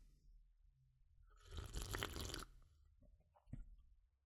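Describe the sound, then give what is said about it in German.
A loud slurp of hot broth lasting about a second, airy and wet, followed by quieter mouth sounds and a small gulp. “Jetzt kann ich einen Schluck von der Brühe nehmen und du bist live dabei, du wirst sehen. Ich mache sogar Schlürfgeräusche und dann davon merkst du schon, wie lecker diese Brühe ist.”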